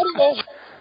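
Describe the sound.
A brief electronic tone on a phone line as a call drops, thin and band-limited, mixed with a short fragment of muffled voice before it cuts off.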